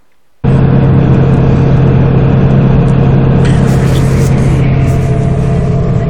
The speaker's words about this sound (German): Ich fand den Volvo 850, den mein Vater damals hatte, einfach schön, vor allem vom Sound her und vom Sitzkomfort. Ich zeig mal kurz ein Video, da geht es vor allem um den Sound von diesem Fünfzylinder. Fünfzylinder-Sauger genial einfach beim Fahren.